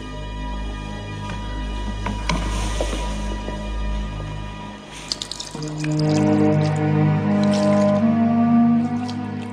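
Water runs and trickles steadily as Cinfa washes holy baptismal water from her daughter's head, a continuous splashing pour with small drips and splashes throughout.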